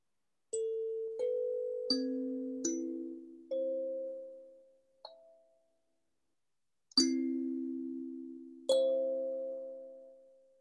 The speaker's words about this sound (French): La tonalité est magnifique. Je vais vous le faire. Alors, à chaque fois, ce genre d'instrument avec une caisse de résonance, a une tonalité différente. Celui-ci, je le préserve car il a une tonalité d'exception. Écoutez.